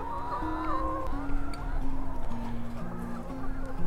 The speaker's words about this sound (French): Il, est mobile, hein. il est sur des roues. Et puis les poules, euh, elles viennent, euh, bah, viennent vers moi là en ce moment. Vous les entendez